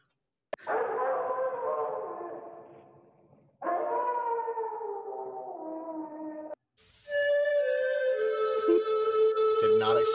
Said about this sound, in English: I heard a howl and my asshole bled.